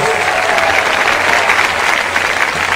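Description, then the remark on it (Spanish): An audience at a worship service applauds Jesus Christ loudly and steadily, a dense wash of many hands clapping at once, sustained evenly from start to finish with no talking over it. “Dale ese aplauso bien grande a Jesucristo, hermano.”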